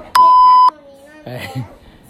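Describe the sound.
A loud, steady electronic censor bleep lasting about half a second, covering a problematic remark, followed by a brief stretch of quiet and then a few syllables of a child-like voice speaking.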